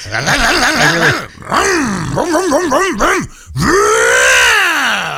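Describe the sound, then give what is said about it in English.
A voice imitates a revving motorcycle engine, with wobbling, rising and falling pitch in three loud bursts over about five seconds. “I, I, don't even think that's a motorcycle. I think you're just making that sound.”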